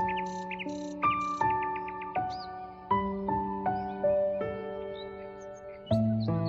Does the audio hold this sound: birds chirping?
yes